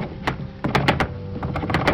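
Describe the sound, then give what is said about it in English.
A locked bottom drawer being tugged repeatedly, giving a series of quick wooden rattles and knocks, fairly loud, with no voices. “And it was locked. Tugging at the drawer”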